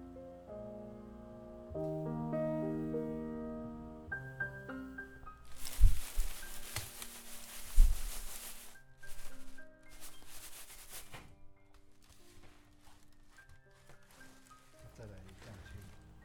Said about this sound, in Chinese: 现在你所听到的这个声音，如果没有透过描述，你可能很难想象在做什么。这用了一个竹篮，把茶叶放在里面，然后呢，用双手不断的摇晃它、拨它、翻它